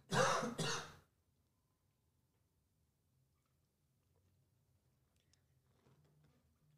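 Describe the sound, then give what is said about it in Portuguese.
A loud cough and throat clearing in two quick bursts at the start, followed by near silence with only faint low background hum and small ticks. “Vou tossir.”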